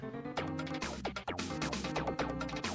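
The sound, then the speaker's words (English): Upbeat video game racing victory lap music plays loud and alone, with a bouncy synth bassline, punchy percussion hits and bright layered melody moving at a brisk tempo. “Eh, but depending on who won it would change the lap, like the victory lap music right.”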